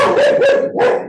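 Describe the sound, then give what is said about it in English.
A pet dog barks loudly, a quick run of sharp, strained barks blending together, then one more bark after a short gap, with no one talking. “That's my dog.”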